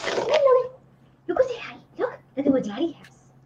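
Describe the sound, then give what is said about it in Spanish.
A small dog whimpers in four short, whiny bursts with brief pauses between them, over a faint steady low hum. “Ahí está la, la mi querida novia y mi, prometida de mi perrito acaba de llegar.”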